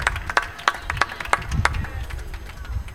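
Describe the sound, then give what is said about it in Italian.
A handful of audience members clap sharply in a steady rhythm for about a second and a half, giving applause, then fade into a low, muffled murmur. “grazie mille facciamogli un applauso grazie”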